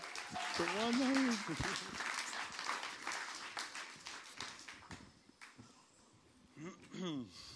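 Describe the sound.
An audience claps steadily and loudly, with a brief vocal cheer rising over it early on; the applause thins out toward the end as a single voice comes in.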